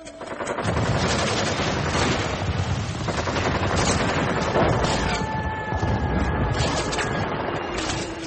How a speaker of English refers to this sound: when, on June 8, Israel attacked the USS Liberty, an unarmed NSA spy ship stationed in international waters off Sinai. They drop napalm and strafe its decks with rockets, cannon fire, and armor piercing rounds before trying to sink it with torpedoes.